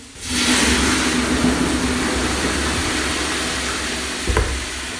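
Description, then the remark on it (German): Water is poured on hot sauna stones for the last infusion (Aufguss), hitting them with a sudden loud hiss that swells into a steady, sizzling rush. It fades only slightly over several seconds, with a low rumble underneath and no voices. “Ja, ich denke, darauf machen wir jetzt den letzten Aufguss.”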